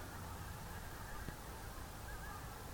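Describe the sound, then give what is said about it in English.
A flock of geese honks faintly overhead, whirling around in the air above a winter roosting space beside a river, a few scattered calls rising above a steady wash of outdoor noise. “We have a roosting space to the side of the river and several hundred, maybe a thousand geese and probably 20 whooper swans stay there over the winter.”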